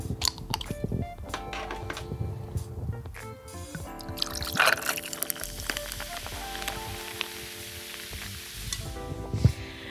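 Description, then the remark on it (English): Salty grapefruit soda pours over ice and a shot of Benriach whisky in a glass, a steady crackling sizzle of bubbles with occasional clinks and liquid gurgles, moderately loud, no talking. “And then we've got the salty grapefruit soda.”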